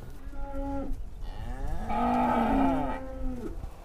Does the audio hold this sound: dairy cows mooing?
yes